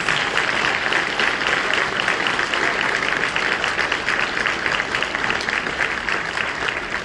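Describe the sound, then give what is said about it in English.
A room full of people claps steadily, a dense, sustained wash of applause that stays loud and even for several seconds with no voices rising above it. “And um, first of all, give Roland a round of applause.”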